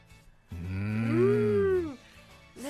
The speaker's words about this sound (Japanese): 私は牛の鳴き声を勘違いしていたのです、近くで乳牛を飼っているところがありそこの牛が鳴いていただけだったのです牛のモーの鳴き声に「多い」を重ねてみるとイメージしやすいかもしれません